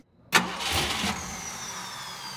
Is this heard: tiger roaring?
no